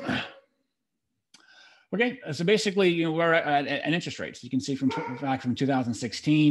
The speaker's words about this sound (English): That's just my dog. Sorry.